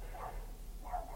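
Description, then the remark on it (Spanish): A dog barks twice, roughly a second apart, heard from inside a waiting car, over a steady low engine-like hum. “hay un perro que está aquí ladrando más de lo normal”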